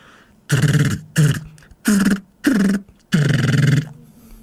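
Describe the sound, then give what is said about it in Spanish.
A man's voice imitates machine-gun fire: five loud, raspy bursts of rapid rattling sound, separated by short pauses, with no other talking. “Va. Una metralleta. Fácil.”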